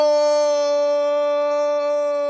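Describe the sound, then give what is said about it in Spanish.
A long drawn-out shout of "gol" by a football fan celebrating like a football commentator, one loud voice holding a single steady, strained note without a break from start to finish, alone. “Ese es el grito de gol más largo que he escuchado.”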